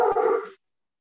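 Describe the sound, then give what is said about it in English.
A dog gives a single short, clear bark, then the sound cuts off into silence. No one speaks. “sorry, dog alert.”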